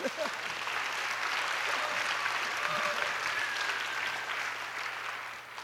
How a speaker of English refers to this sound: Come on, let's give a hand here.